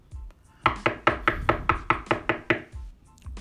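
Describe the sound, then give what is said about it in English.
A rapid series of about nine sharp knocks on a door, evenly spaced and fairly loud, with a brief quiet before and after and no voices. “You know, just when you thought life is fucking good, you hear a knock.”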